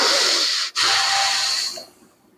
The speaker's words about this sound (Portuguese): Tô respirando fundo agora, ó. Tá forte ainda? Tá forte ainda. Agora melhorou, ó.